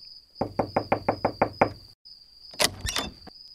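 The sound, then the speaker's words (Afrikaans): A traveller knocking again on a wooden door: eight quick, evenly spaced knocks, followed after a brief pause by a louder rattling burst, with a faint steady high whine underneath. “Toe klop hy weer aan die deur.”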